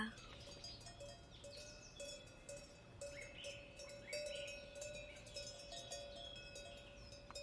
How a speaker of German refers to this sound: Vor dir siehst du eine grüne Bergwiese. Was kannst du alles wahrnehmen? vielleicht Wildblumen, ein paar Kühe.